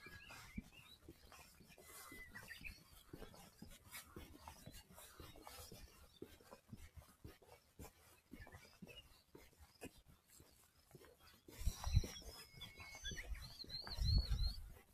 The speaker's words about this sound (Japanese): このウグイスたちはいつまで泣い、いつ頃まで泣き続けるんだろうか。朝だけかな。